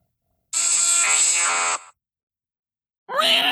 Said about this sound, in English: It's got to be Electabuzz, right? That's absolutely right. It is an Electabuzz.